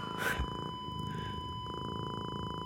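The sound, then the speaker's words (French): A cat purrs in a steady, rumbling rhythm that continues throughout, with a brief brighter burst of sound near the start. “salut Minou.”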